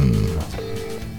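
An outgoing phone call rings out on the line near midnight: two steady electronic ringback tones with a short pause between them, heard through the handset with a low background rumble and no talking.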